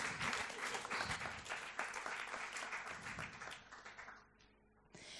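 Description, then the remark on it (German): An audience applauds several speakers with a dense, steady wash of many hands clapping, holding strong for about four seconds before thinning out and fading, followed by a brief sharp noise at the end. “Gebt ihnen doch Applaus.”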